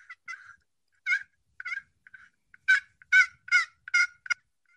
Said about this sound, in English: It's on the outside of the box call. This guy makes them for 10 bucks.